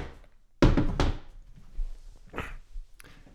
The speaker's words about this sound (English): Uh, let me move this chair back.